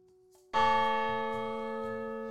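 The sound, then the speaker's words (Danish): A single loud strike of a large church bell weighing about 500 kilograms, one of two hanging in the belfry, ringing out with a rich, sustained tone that slowly decays, with a low pulsing hum beneath it. “Der er sådan to store kirkeklokker, ja. de vejer omkring 500 kilo stykker.”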